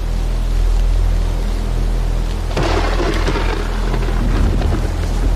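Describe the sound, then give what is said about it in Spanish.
A steady wash of heavy rain hisses throughout during a storm in a huge forest, and midway a loud thunderclap breaks in and rumbles on beneath the downpour. No voices are heard. “Necesito un refugio. La tienda. Al menos sirvió de algo no terminar a tiempo. Esperaré a que pase un poco la tormenta.”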